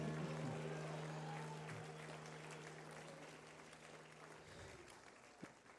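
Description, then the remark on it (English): An audience at a church service claps steadily, a dense wash of hand claps with a low sustained tone underneath, fading gradually toward the end. “If you believe it, clap your hands as hard as you can and shout hallelujah.”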